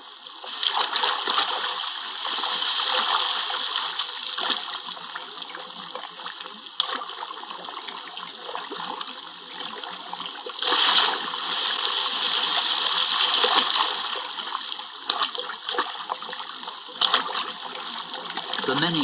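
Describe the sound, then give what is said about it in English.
Water splashing steadily in a forest stream in the Mata Atlântica, a continuous bright hissing babble with small bursts of louder splatter throughout, holding at a fairly even level for the whole stretch. “But in the Mata Atlântica, there's always a stream nearby.”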